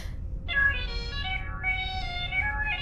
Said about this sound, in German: Ich übe lieber Digi-Dudelsack.